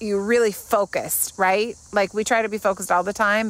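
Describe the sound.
Crickets chirp outdoors in summertime in a steady, high-pitched drone in the background while a person sitting outside talks continuously over them; the insect sound is faint but constant throughout.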